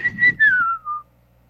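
A person whistles a short, clear tune through pursed lips, a few notes sliding downward in pitch before fading out, fairly loud with no talking.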